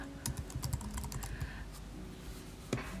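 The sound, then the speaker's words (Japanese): Fairly soft keystrokes on a computer keyboard as someone organizes material on a PC: a quick irregular burst of clicks, a pause with a low background hum, then one sharper tap near the end. No one speaks. “お話をしておりますので少しこのマウスの音とかパソコンのキーボードを叩いてる音とかが入ってしまうかと思いますけれども足からずご了承くださいませ。”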